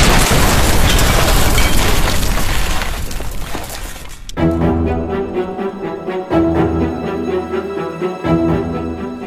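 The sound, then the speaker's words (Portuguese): A massive methane gas explosion in a mine in Virginia, set off by a miner's spark from a flame lamp, roars loudly for about four seconds, a dense rumbling blast with crackling debris that shakes the ground, then cuts abruptly to low, brooding music with steady deep tones. No one speaks. “Numa fração de segundos, houve uma explosão assustadora que fez o chão tremer.”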